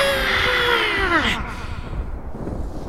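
A single loud, drawn-out scream of a dwarf thrashing about in a cave, sliding downward in pitch, apparently voiced by a person imitating it, lasting about a second and a half before fading into low, rumbling background noise.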